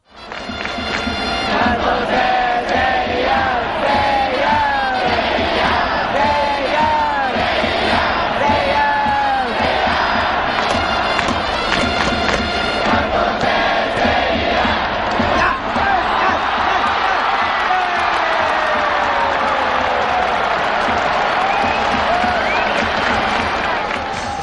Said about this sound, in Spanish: un sonido de Japón, del Tokyo Dome, da, muchísimo gusto ver cómo se vive el béisbol en, Asia. Es absolutamente diferente de como lo hacemos en, el hemisferio occidental.